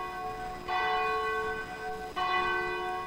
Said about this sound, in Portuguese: Agora faltando 12 minutinhos para as 10 da noite, toca o sino da Catedral de Nossa Senhora de Aparecida, a padroeira do Brasil.